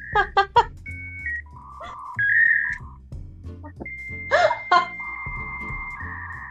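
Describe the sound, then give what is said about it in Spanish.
An old dial-up modem connecting to the internet: a quick run of dialing tones, then alternating electronic beeps, a harsh screeching burst and long steady whining tones, loud, with no talking. “de repente en ese tiempo uno se conectaba y, descargaba y música a veces”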